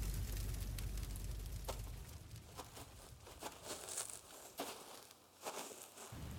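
A campfire crackles steadily with irregular sharp pops and snaps over a soft, continuous hiss of flames, moderately quiet, with no voices.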